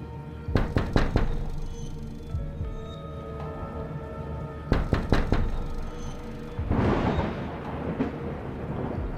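Knuckles rap repeatedly on the glass of a bedroom window in two quick bursts of several sharp knocks, with a low rumble of distant thunder and steady rain-like noise rolling beneath and between them.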